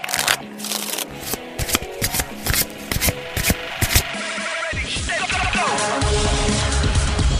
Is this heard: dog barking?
no